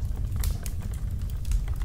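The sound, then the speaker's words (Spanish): A few slow, firm footsteps land as sharp, irregularly spaced clicks and taps over a steady low rumble, with no voices present. “Al prestar más atención, se escuchaban como pisadas de humano,”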